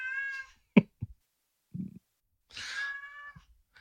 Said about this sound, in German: Man hört die Katze aber richtig gut. Jetzt geht er in der Küche zum Fressen. Unglaublich. Unglaublich. Naja, es ist ein alter Kater, ne? Der ist ähm, 16.